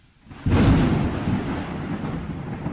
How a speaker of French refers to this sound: Dans la nuit du 22 août éclata un orage tropical.